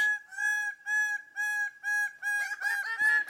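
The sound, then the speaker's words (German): A crow calls over and over, about six short, bright, evenly spaced notes, the last few growing rougher and overlapping. No one speaks. “Vögel. Richtig.”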